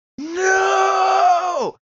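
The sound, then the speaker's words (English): A man's single loud, strained scream, strangled at first, held at a steady pitch for about a second and a half, then sliding down and cutting off abruptly, as he screams to get away from something haunting him in a dream. No one talks. “Yeah, but finally comes out as like a, a, a very loud scream”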